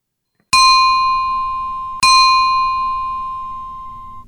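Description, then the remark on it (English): Two bright bell chimes, a spoiler alert sound effect, ring out about a second and a half apart, each struck sharply and left to ring with a long, clear sustain that slowly fades. No voices. “So we we have the the, the, the train horn, but we also have the spoiler alert sound effect.”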